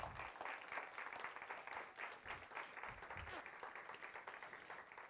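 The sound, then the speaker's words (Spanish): An audience applauds for Christ during a church service. Many hands clap steadily in a dense wash without pause for several seconds, with faint murmuring voices mixed underneath. “Denle un aplauso a Cristo, por favor, en el día de hoy.”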